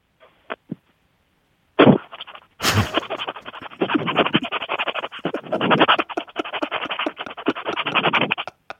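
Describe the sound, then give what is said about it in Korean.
An electric rice cooker cooking rice: a few soft clicks, then a sudden burst followed by a steady, rattling hiss of steam that sputters and fluctuates for several seconds before stopping abruptly. “아, 저, 그, 밥소리요. 치사소리. 밥 짓는 소리. 아, 아, 밥 짓는 그 전기 밥솥 소리?”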